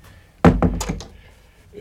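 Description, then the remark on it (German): A front door thuds shut, followed quickly by a few short clicks as it is locked behind an arriving visitor, then quiet. “Am besten, Sie schließen hinter mir gleich wieder ab.”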